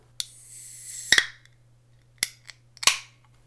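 A soda can cracks open with a sharp pop and a loud fizzing hiss lasting about a second, followed by a few crisp metallic clicks. No one speaks.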